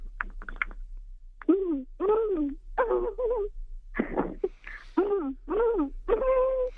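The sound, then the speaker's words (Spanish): A woman imitates a panda call with a run of bleating, wavering squeals and moans, about eight bursts separated by short pauses, fairly loud, with no other talking. “…, lo escuchas una vez y luego cuando yo digo lo haces”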